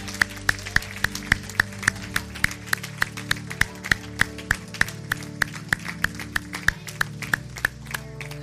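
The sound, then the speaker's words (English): A church audience gives a round of applause for a group of men, clapping in a steady, even rhythm, about four sharp claps per second, over sustained low musical tones. No one speaks. “Those that are not standing, would you be willing to stand and give these men a big round of applause for their willingness to stand?”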